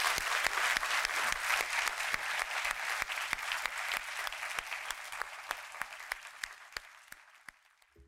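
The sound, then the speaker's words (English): An audience claps steadily for several seconds to show appreciation for the speakers Peter Singer, Julian Baggini and Sophie Scott, a dense wash of many hands that gradually thins and fades out near the end, leaving a few scattered claps. “But if we can just finish by perhaps uh, for each of our three speakers, Peter Singer, Julian Baggini, um, and Sophie Scott Brown by just showing our appreciation for them.”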